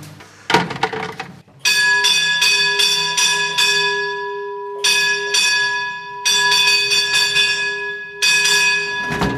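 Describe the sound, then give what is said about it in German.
A mine shaft signal bell in a mine gallery near Ehrenfriedersdorf, Germany, is rung to signal the hoist machinist to raise them back up. It rings in repeated bursts of rapid metallic strikes, with short pauses between groups, after a few heavy knocks at the start. No one speaks. “und du klingelst hier. Ich rufe den Maschinist an. Dass er uns wieder hochlässt.”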